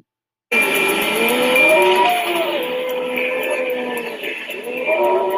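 Hurricane wind roars in a loud, unbroken rush, with high howling whistles rising and falling over the dense noise; it starts abruptly and keeps going at full strength.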